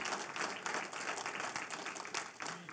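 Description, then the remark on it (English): An audience applauds for an associate pastor who was saved, a dense, steady wash of many hands clapping at once, loud and sustained across the whole stretch with small swells, no talking over it. “I want you to applaud.”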